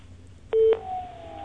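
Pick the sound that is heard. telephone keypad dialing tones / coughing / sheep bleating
telephone keypad dialing tones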